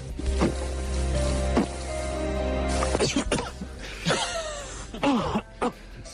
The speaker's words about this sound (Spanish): amigos, disculpen el problema, pero tomé refresco y en vez de irse para un lado se fue para el otro. Entonces me dejó sin voz